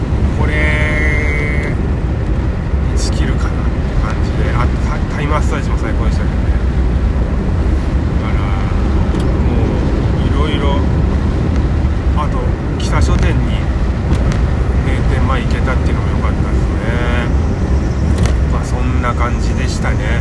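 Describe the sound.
A ferry pulls out of port, its deep engine rumble steady and loud throughout, with wind and hull noise washing over it and muffled voices faintly audible in the background.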